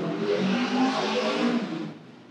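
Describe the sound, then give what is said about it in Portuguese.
A neighbor revs a car engine loudly and steadily for about two seconds, its deep growl holding strong before easing off at the end; no voices are heard. “Tem, tem, tem vizinho acelerando.”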